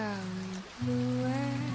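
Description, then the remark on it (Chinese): Steady, soft rain hisses throughout, leaving traces of water on window glass, blended with low sustained musical tones that pause briefly and then resume. No one speaks. “下雨了，坐在窗前，玻璃上都是雨水的痕迹”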